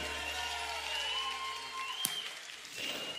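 An audience claps steadily for about three seconds, a dense, even patter of hands at moderate volume, with one sharp click partway through and a faint tonal hum underneath.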